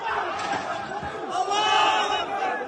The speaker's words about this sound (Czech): Prosklené vstupní dveře mezinárodního terminálu letiště v Machačkale nevydržely nápor davu.